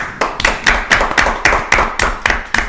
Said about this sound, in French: Je vous propose d'applaudir